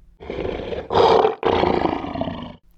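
A tiger's roar, loud: a deep, rumbling growl that swells in two or three powerful surges over a couple of seconds, then cuts off. No voices.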